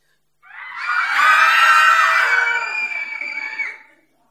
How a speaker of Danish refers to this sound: Prøv lige at holde jer for ørerne. For prøv lige at skrige.